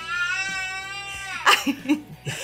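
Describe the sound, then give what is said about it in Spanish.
A young girl cries: a sustained, wavering wail for over a second, then several short, choppy sobbing bursts and gasps, fairly loud with no talking. “Por eso que está acá llorando porque la mamá no está cantando con ella.”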